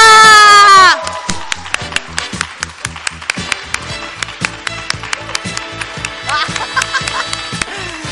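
An audience claps in a steady, rhythmic beat of sharp, crisp hits, following a brief loud sustained vocal sound at the start, with tonal background sound running underneath.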